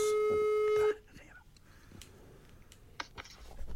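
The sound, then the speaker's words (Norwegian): A single steady telephone ringback tone of an outgoing call to Voss, loud and clear for about a second, then cuts off into quiet line hiss with faint clicks and muffled background murmur. “Det skal ja, eh, vi tar en telefon og hører hva, hvor det går oppe på Voss for tida.”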